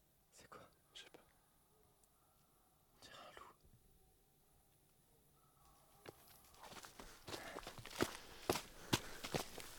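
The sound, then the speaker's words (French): Footsteps of a woman coming out of the house approach from behind, starting as a few scattered, soft steps and growing louder and more frequent as they come, with faint whispery breaths in between. “On entend quelqu'un qui arrive derrière nous.”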